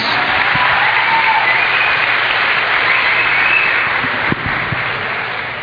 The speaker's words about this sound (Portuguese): Nossos aplausos a Casper Merecidíssimos.